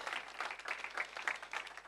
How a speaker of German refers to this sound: Wir möchten euch unsere besten Liebesgrüße schicken, egal wo ihr seid, mit einem kräftigen Applaus jetzt hier aus der Oase Church.